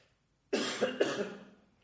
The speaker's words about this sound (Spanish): Tengo que toser.